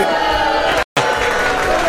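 A crowd bursts into loud, dense applause mixed with cheering, briefly cut off by a moment of silence before the clapping and cheers resume at full strength.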